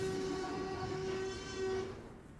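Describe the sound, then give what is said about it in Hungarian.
An elephant trumpets with a loud, sustained brassy blast that holds a steady pitch for about two seconds before fading, over a low rumble of background noise. No one speaks. “Ez mi volt? Elefánt.”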